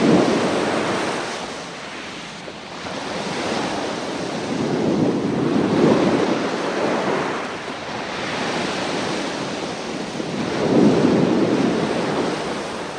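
Waves of a sunlit blue-turquoise sea roll in and break on a lonely white beach with palm trees in slow, steady surges, each swell building to a broad rushing crash before receding into a continuous hiss of surf.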